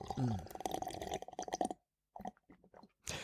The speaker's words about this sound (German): Moment. Ich trinke vorher noch ein Stückchen.